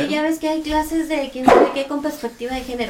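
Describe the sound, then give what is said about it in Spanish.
A dog, apparently Tyson, gives a single short, fairly loud bark partway through, cutting across steady conversation between people talking throughout. “Ladró Tyson, yo creo.”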